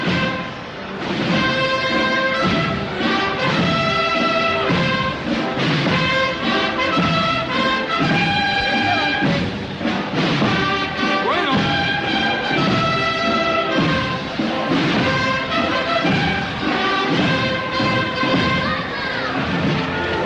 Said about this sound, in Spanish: y ahí sube ya ese palio de María Santísima del Mayor Dolor. Escuchamos los sones de la Sociedad Filarmónica de Jaén, la banda de la Reina de la Amargura.